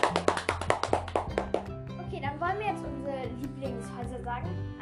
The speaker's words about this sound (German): Ein Applaus für Hufflepuff.